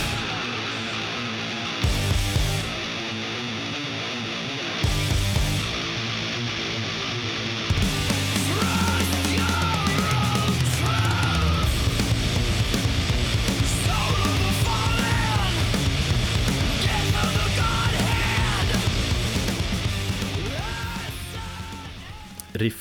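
A crushing, heavy metal guitar riff with chugging low chords and driving drums, loud and dense throughout, with a short stop-start opening before settling into a pounding groove and fading at the end.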